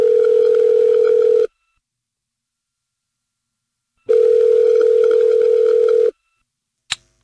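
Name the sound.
telephone ringing tone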